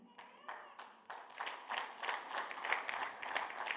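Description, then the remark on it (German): A small group of about 14 people claps for a few seconds, starting with a few separate claps that quickly build into steady, moderately loud applause. “okay, danke, es waren ungefähr 14 Leute, glaube ich, die geklatscht haben”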